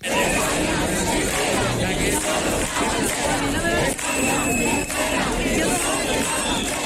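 A large protest crowd in front of the Socialist Party headquarters in Spain, opposing the announced amnesty, shouts and chants against support for Puigdemont and against the acting Spanish prime minister, a continuous dense roar of many voices with a few higher yells cutting through.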